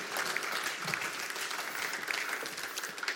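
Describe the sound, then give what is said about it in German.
A crowd applauds steadily as two guests are invited into the studio, many hands clapping in a dense, continuous patter that stays fairly even in loudness for a few seconds, with no voices standing out. “Das sind zwei ganz gut mutige Menschen und ich möchte gerne, dass ihr ihnen einen Applaus gebt und ich lade sie ein zu mir ins Studio.”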